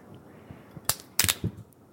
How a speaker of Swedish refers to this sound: Hördes det där? Ja, det, det lät som en typ en ökenrotta försökte ta sig ut ur en ja. bur. Jag avslöjade just min ekonomiska status för jag öppnade en flaska vin med skruvkork.